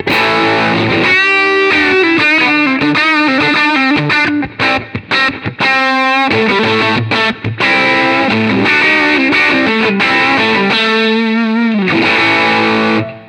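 An electric guitar through an amplifier with the gain turned all the way up, playing loud, heavily distorted single-note lines with thick sustain and a few brief choppy pauses.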